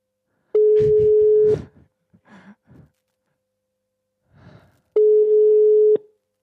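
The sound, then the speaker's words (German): A telephone ringback tone on an outgoing phone call sounds twice, each a steady, loud one-second beep separated by a long pause, with soft breathy sighs and faint rustling in the gap. “Es müsste klingeln.”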